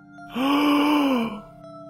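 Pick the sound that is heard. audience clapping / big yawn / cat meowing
big yawn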